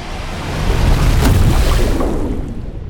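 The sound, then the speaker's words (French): A plane crashing into the Indian Ocean about 15 km off the north coast of Grande Commune after the pilot loses control: a loud, rushing roar of churning water and wind swells up, with a sharp impact about midway, then slowly subsides. No one speaks. “Le pilote perd soudain le contrôle de l'avion, qui plonge irrémédiablement dans l'océan Indien, à environ 15 km de la côte nord de la Grande Commune.”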